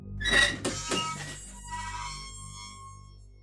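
A heavy old fire door, not opened for probably five or ten years, is forced open: a couple of sharp thunks early on and a long, shrill metallic squeal that rings out and slowly fades. No voices.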